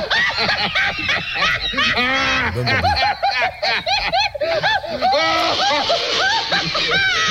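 A loud, busy comic novelty orchestra recording, full of wobbling, sliding notes and zany sound effects like snickering, splashes and bleat-like squawks, playing continuously throughout.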